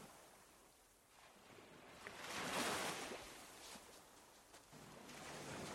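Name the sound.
ocean waves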